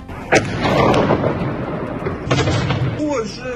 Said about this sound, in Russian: Жители жалуются, что были напуганы звуками взрывов. Громкий звук такого взрыва, можно сказать, вот, э, в окно услышал.